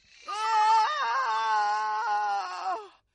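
man screaming

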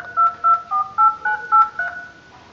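telephone keypad dialing tones

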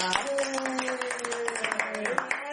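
audience applause

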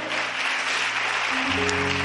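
audience applause

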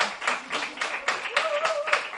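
small round of applause

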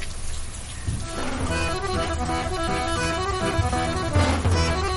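rain falling

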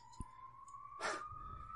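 ambulance siren passing

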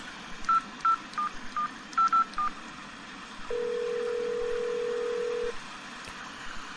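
telephone keypad dialing tones

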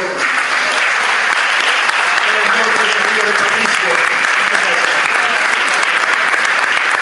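audience applauding and cheering

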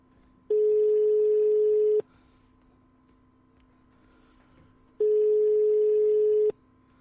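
telephone ringing tones

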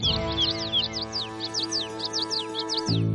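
many birds chirping

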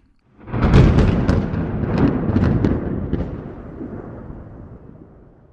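thunderstorm sound effect

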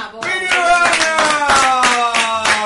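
audience clapping

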